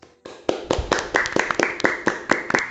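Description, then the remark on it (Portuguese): A group of people clap their hands in a brisk, steady burst of sharp, overlapping claps lasting a few seconds, with no voices on top, applauding Penny and Canon for their contributions to science. “Eu acho que esse é o momento que a gente pode bater palmas para a Penny e para a Canon pelas suas contribuições para a ciência.”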